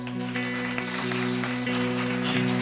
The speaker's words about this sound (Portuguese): Será que você pode aplaudir Jesus?